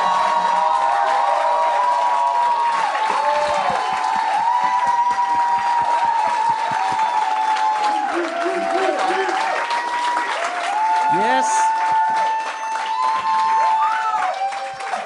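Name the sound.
audience applause and cheering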